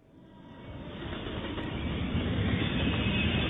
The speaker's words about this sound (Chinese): 银闪闪的车轮在铁轨上轰隆隆转，奔驰在山谷间，来了又去，去了又来，叽嘎叽嘎，咔嗒咔嗒，蒸汽。冒出来了，嘟！火车载你进入梦乡。